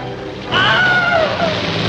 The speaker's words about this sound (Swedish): Använde du, du det var ju du som gjorde ljudeffekterna till Radio Pleppo, använde du det här eh, Wilhelm-skriket? Det här kända skriket som används i Hollywoodfilmer?